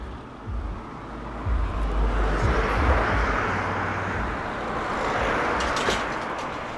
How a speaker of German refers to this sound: Jetzt kommt von hinten ein Auto.